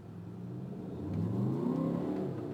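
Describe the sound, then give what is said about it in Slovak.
A car engine rumbles low and steady, its pitch climbing as it accelerates, with no voices. “tento, toto dunenie, ako už sme sa o tom bavili, ale aj tak stále to tu máš.”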